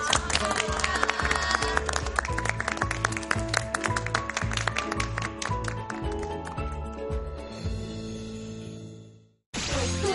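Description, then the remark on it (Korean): Audience applause thanking a lecturer after a talk: a dense steady clapping blends with loud rhythmic music carrying a thumping beat. It all fades out near the end before a brief, abrupt burst of sound returns. “다시 한번 감사의 박수를 보내드리겠습니다.”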